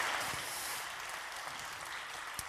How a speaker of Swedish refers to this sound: Ge eh, en applåd. Tack så mycket.